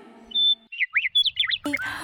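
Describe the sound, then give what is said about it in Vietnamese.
Loud bird chirps in a quick string of bright, sweeping high notes, a steady whistle followed by rapid rising and falling tweets, with a burst of fuller calls at the end. “Bữa nay chim có gì vui mà hót rít đau hết cái đầu hà”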